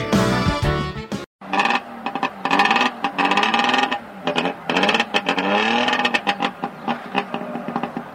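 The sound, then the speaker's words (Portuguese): A small old DKV car engine roars and revs repeatedly, its loud buzzing pitch rising and falling in waves, with a brief cut near the start and no voices. “Este é o ronco do motor do DKV.”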